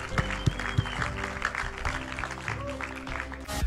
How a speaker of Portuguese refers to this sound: Igreja, podemos dar uma salva de palmas a todas as pessoas que levantaram a sua mão esta tarde.